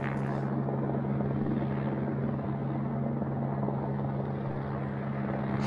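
helicopter flying overhead

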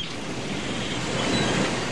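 ocean waves

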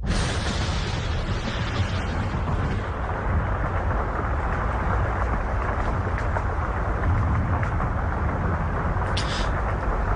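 rain with thunder

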